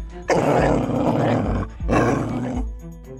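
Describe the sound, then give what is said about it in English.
A male dog inside a car growls and snarls loudly at a car thief in two long, rough bursts separated by a brief pause, followed by a quieter tail of low rumbling. “Whoa, down boy.”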